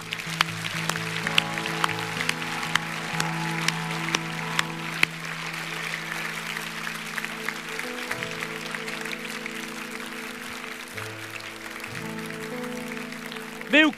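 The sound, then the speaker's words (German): An audience claps steadily for everyone who pressed hands during a prayer, a dense crackling applause blended with sustained keyboard chords playing underneath at a fairly loud, even level. “Ich möchte Applaus geben für alle, die, die gedrückt haben.”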